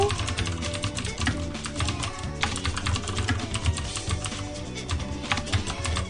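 Rapid, irregular clicking of someone typing on a computer keyboard, steady across the whole stretch, over a continuous low tonal background.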